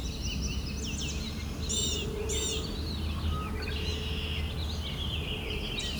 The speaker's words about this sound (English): it's picked up American Robin. And yes, there is totally an orchard oriole here that I'm now hearing. So I did intentionally do this with some noise in the background because typical use case will probably be in an urban area.